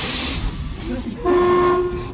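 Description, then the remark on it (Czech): A metro train set carrying officials on a ride before the metro's official opening starts moving: a brief hiss gives way to a low rumble, then a steady electric motor whine rises in, holding two humming tones as the train pulls away. “Nastoupili do vagonů a souprava se rozjela.”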